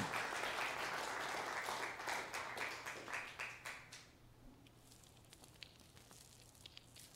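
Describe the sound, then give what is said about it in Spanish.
An audience bursts into dense, sustained applause for God that gradually thins into scattered claps and fades out after about four seconds, leaving quiet background noise with a few isolated taps. “Aquí le pido un aplauso a ese Dios maravilloso.”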